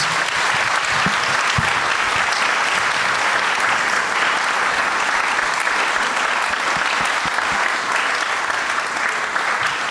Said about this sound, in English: Ladies and gentlemen, big round of applause.